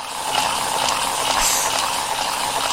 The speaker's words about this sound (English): I'm sorry. I have a um what you call it a power ball in my hands.